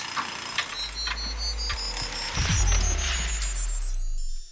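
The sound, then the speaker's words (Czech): A synthetic teleport effect: shimmering high tones sweep steadily upward over a deep, swelling rumble and bursts of hiss, growing louder midway before fading out. No voices are heard. “Ještě, že máme ten teleport a mohli jsme se přenést do studovny.”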